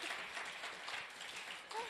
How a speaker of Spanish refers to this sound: Sí, un aplauso para ella.